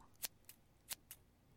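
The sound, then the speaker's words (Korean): Scissors snip through hair four times in two quick pairs, crisp, each cut a sharp, bright metallic crunch against a quiet background with no voices. “들리죠? 싹둑 잘라버린 거예요.”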